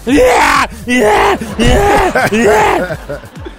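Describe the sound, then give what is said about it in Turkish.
A voice imitates the exaggerated heavy panting of someone who has climbed ten flights of stairs, loud, in several strained, groaning bursts with short gaps between them, trailing off softer at the end. “Abicim ben 10 tane merdiven çıkınca bak böyle soluyorum.”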